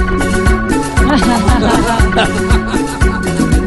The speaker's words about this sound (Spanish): Y este corte es el 721 y es en ritmo de salsa nórdica. ¿Salsa nórdica? Sí, sí, sí, de repente. Y suena así.